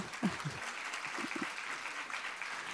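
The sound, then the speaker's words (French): An audience claps steadily for a few seconds in applause for the people who worked and served, including the sound team, a dense wash of many hands with a couple of brief voices or shouts mixed in at the start. “voilà, on peut les applaudir.”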